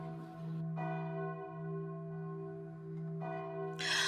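A large curfew bell tolls with deep, sustained harmonic tones, struck twice about two and a half seconds apart, each strike ringing out over the lingering hum of the previous one.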